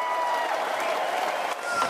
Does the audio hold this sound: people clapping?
yes